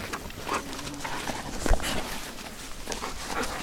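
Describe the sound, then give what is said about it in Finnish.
A flat-coated retriever whimpers in short, thin whines, wanting its share of the bread, against a steady outdoor background hiss, with one brief thump partway through and no one speaking. “otat sä ton koiran?”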